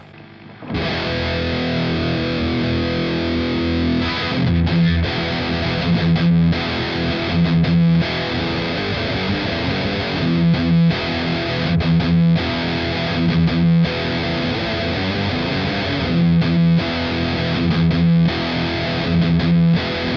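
Heavily distorted electric guitar played through an amp plugin plays a metal riff, loud, mixing sustained crunchy chords with short rhythmic palm-muted chugs and brief stops, with no voices over it.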